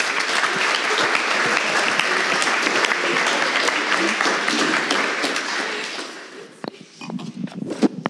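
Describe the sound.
Sustained applause from an audience for a municipal council candidate, a dense steady patter of many hands clapping for about six seconds, then thinning out into a few scattered claps and some faint talk.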